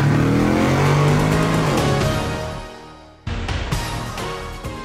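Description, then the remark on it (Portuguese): A car engine revs hard, its pitch climbing and shifting as the vehicle pulls away and fades, then a louder burst of engine noise cuts in abruptly. “engata a primeira e vambora!”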